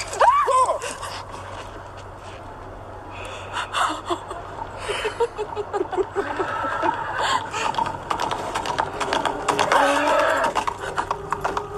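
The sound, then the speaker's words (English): Horse hooves clip-clop on a hard street in short bursts of sharp, regular knocks, mixed with gasps, breathy voices and a busy background. “police horse? Where's the cop?”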